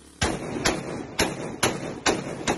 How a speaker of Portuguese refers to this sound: Neste vídeo, um criminoso faz diversos disparos para o alto com um fuzil após a chegada da polícia à região.